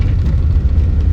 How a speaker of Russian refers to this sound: это печка, блин. Что-то там попало. Ну ладно, если будет шипеть, значит слушайте шипение.